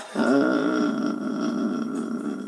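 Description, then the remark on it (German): A person growls into a microphone in imitation of a dog, a low, rough, sustained rumble lasting over two seconds, fairly loud and steady with no speech. “knurrt ins Mikro. Monster. So ein Hund macht das auch”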